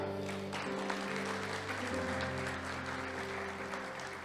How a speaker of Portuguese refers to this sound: Dá uma glória a Deus, aplaude ao Senhor.